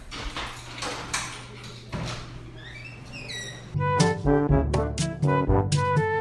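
A door is hurriedly opened: a series of dull knocks and thuds, then a brief squeaky creak of hinges. Bright tonal music then swells in over the rest.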